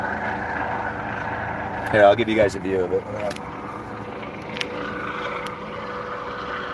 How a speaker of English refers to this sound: And here, we'll just let this helicopter land for a second. It's going to be down in a minute.